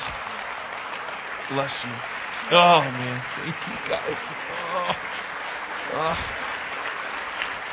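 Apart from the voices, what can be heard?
audience applause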